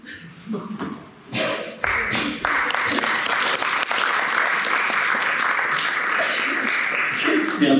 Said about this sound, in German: das war entweder ein Applaus für dich oder für den britischen Humor, der da ähm, durchschlägt.